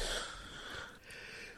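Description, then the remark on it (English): A short, breathy sneeze, fairly quiet, a hissy burst of air that trails off over a second or so, with no talking. “bless you. So that that will be the new James Bond game,”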